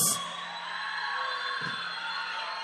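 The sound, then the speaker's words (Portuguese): An audience cheers and claps in a steady, sustained roar for a few seconds, with high whoops and voices layered over a dense wash of clapping, at a church service, welcoming a man who has preached the word of God to them for years. “Uma salva de palmas.”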